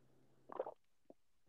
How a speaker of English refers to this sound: So if anybody wants to hear you swallowing, they can now.